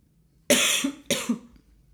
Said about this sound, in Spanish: El que nos está escuchando por audífonos, le tosiste tres veces en la oreja. Perdón, perdón, de verdad.